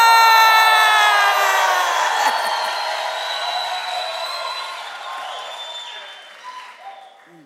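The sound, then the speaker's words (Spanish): A large crowd roars with shouts and cheers, loud and dense at first, then gradually fading over several seconds with scattered whoops and high voices. “소리 지르는 것도 como 그렇고. gritan.”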